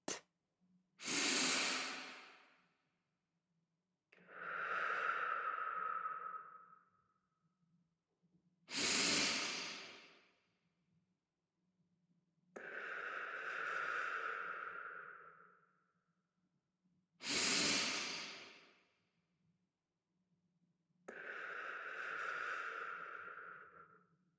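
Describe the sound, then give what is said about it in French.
Three deep, full, energizing breaths at a slow, even pace, each a sharp, airy inhale followed by a longer, whooshing exhale. Clear, with no talking over them. “Prenez quelques grandes inspirations dynamisantes.”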